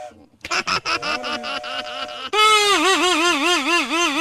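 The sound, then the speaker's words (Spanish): A cracked but still working horn (corneta) is blown in a quick series of short, buzzy toots, then breaks into a loud, sustained blast whose pitch warbles up and down in a steady wavering pattern. “El malvado de la corneta. Tú eres el malvado que me fregaste el oído.”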